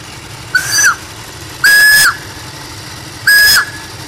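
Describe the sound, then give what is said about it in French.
A steam car's whistle gives three short, loud blasts at uneven intervals, each a shrill, breathy tone with a hissing edge, over a low rumbling background, sounding as the pressure begins to build. “Euh, jusqu'à temps qu'on ait de la pression, mais comme le sifflet siffle, c'est signe que euh, la pression commence à venir.”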